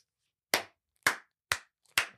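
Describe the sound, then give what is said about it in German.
Four sharp hand claps in a slow, deliberate rhythm, each a crisp smack about half a second apart with quiet gaps between. No one speaks. “Ich gebe ihm keinen Applaus.”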